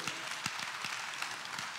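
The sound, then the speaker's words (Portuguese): Congregation applause in praise of God fills the whole stretch, a dense, steady wash of many hands clapping at once with a few sharper individual claps standing out, and no voices on top. “Você pode aplaudir este pai de toda a tua vida.”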